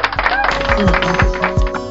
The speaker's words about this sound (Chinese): 这时候给你鼓掌吧！ 看我配合你。